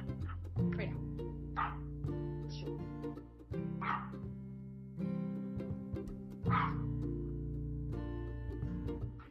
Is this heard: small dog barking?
yes